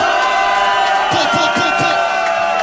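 A live concert crowd cheers loudly in a dense, steady roar, with a quick run of individual whoops and shouts rising out of the noise midway through.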